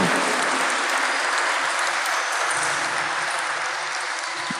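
An audience in the parish church of Roldán breaks into sustained applause on the night of 9 November 2023. It is a dense, steady wash of many hands clapping at once that holds loud and even throughout, with no voices standing out.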